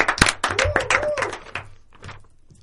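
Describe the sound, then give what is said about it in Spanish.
A dense burst of crowd clapping mixed with shouts and whoops, loud at first and then thinning out and fading over a couple of seconds. “Más aplausos, alaridos, vítores.”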